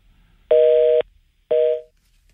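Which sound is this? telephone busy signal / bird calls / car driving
telephone busy signal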